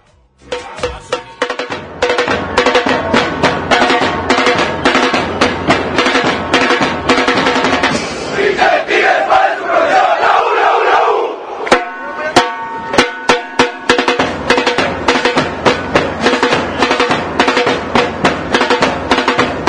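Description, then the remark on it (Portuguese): Supporters of the Tigres football club chant their battle cry in unison over steady, pounding drum beats, loud and rhythmic throughout, with the voices swelling briefly in the middle. “Sim, vamos, vamos começar então com um, um grito de guerra né, do, da torcida do Tigres, que é Qual é su profissional.”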